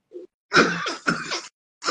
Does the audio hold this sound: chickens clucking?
no